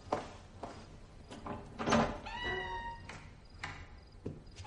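A door in a bedroom being opened by an adolescent girl carrying a sword: a few sharp clicks and knocks, then a drawn-out, squeaky hinge creak lasting under a second, followed by more light taps.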